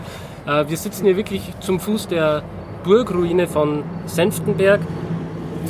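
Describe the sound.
A truck rumbles past on the road beside a winery, a low steady drone of engine and tires running beneath a man's continuous speech and a brief laugh.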